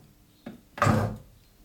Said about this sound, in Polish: W tym momencie cały chleb już mam e, nastawiony do pieczenia i klikam tylko przycisk start